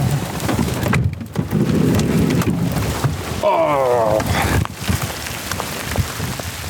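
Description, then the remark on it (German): Graupel, more like snow than hail, pelts down in a dense, steady patter, a constant hiss of tiny impacts, at the Stoffel overlooking the village of Hittnau and Lake Pfäffikon, with a brief voice-like tonal sound rising midway through. “Es ist nicht Hackel. Es ist mehr so Schnee.”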